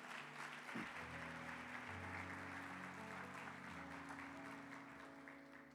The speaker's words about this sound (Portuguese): Agora, alguém é ameaçou aplaudir ao Senhor, pode aplaudir aí. Isso.